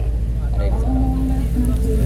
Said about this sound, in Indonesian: ini kan Lofi nih kan ada suara mobil motor orang ngobrol